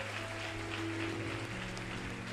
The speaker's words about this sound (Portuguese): Aplaude a Deus por isso.